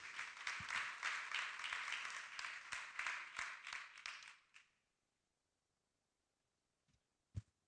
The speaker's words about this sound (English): But would you, as you're seated, would you clap your hands one more time and give the Lord some praise? And you can be seated.